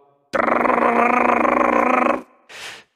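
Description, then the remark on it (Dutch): A voice imitates a jackhammer on a construction site with a loud, sustained buzzing rattle lasting about two seconds, its rapid pulsing even and steady, followed by a short breathy exhale. “Dat is een geluid van de breekhamer.”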